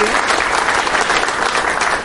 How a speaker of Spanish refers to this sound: un aplauso, por supuesto.